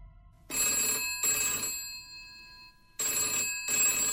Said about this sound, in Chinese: 还没有等到她拿起电话，电话铃突然的响起来。